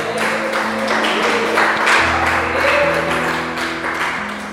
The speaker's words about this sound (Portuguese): Glorifica o Senhor com suas palmas, você que pode.